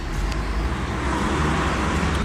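A van's engine rumbles close by as it pulls up, a steady, fairly loud low drone with road noise and no voices.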